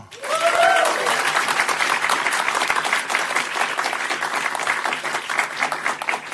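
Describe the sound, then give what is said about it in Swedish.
A large audience claps steadily and warmly as comedian and lawyer Dilan Apak is welcomed onto a panel. The dense applause fills the whole stretch at a fairly loud, even level, with a brief voiced sound near the start. “Ge en varm applåd till Dilan Apak.”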